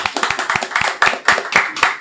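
Steady applause from a small group at an amateur recreational soccer league gathering in Puerto Rico, a dense patter of overlapping hand claps with sharp, bright accents, holding at a fairly even loudness throughout without any voices.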